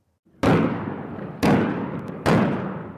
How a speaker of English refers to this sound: Artillery salvos pierce a peaceful summer morning along the Danube River and kick off three days of NATO exercises in a country that borders Ukraine. 8,000 soldiers from 13 countries participate.